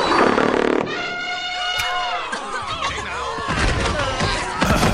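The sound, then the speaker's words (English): A loud, raspy cartoon fart from the warthog Pumbaa in a Disney film scene at Pride Rock blasts for under a second, then gives way to overlapping voices and a swell of sustained musical tones. “so Pumbaa farts and everybody at Pride Rock faints, and people behind like, oh shit, we should bow.”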